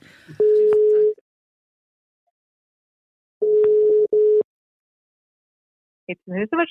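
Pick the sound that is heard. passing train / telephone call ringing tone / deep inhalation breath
telephone call ringing tone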